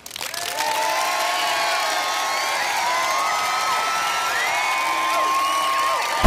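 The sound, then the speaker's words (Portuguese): A crowd applauds and cheers steadily for several seconds for a young opera singer who will sing in a recital in New York, loud and sustained, with shrill whoops and high voices rising above a dense wash of clapping, then it cuts off abruptly. “E é aqui que a gente aplaude?”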